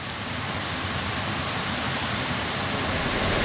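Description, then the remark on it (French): Steady, full rushing of two small waterfalls formed where a river splits in two, a continuous wash of falling water with no pauses and no voices. “on entend en fait le chant de deux cascades différentes”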